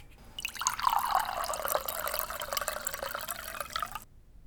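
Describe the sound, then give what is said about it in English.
An alcoholic drink is poured into a glass in one steady, gurgling stream lasting about three and a half seconds, its tone rising as the glass fills, with no voices. “Well, suppose one drink can't hurt.”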